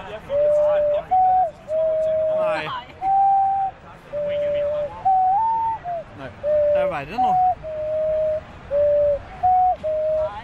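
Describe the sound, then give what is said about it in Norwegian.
An ocarina plays a steady, simple melody of held, pure, hooting notes that step up and down in a repeating pattern, with a voice briefly talking over it. “Jeg vet ikke om folk hører det, men nå har vi altså en konstant ocarina gående og spille bak her.”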